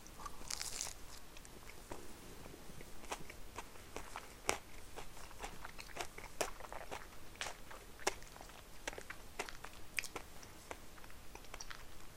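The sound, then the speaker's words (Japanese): Crisp bites and steady crunching chews into an ice cream monaka with crunchy chocolate, a dense series of sharp crackly clicks at a fairly even pace, with no talking. “モナカですねアイスモナカで中にチョコレートが入ってるやつですカリカリのチョコレートこれうまいよ”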